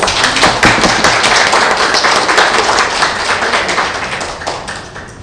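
An audience at an evening talk applauds steadily to welcome a guest speaker, a chemical engineer and entrepreneur; many hands clap in a dense, continuous patter that stays loud throughout, easing slightly toward the end.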